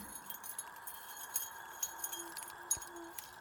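A teapot lid clinks softly several times at irregular moments, with light, bright taps over a quiet, steady background hum and no voices.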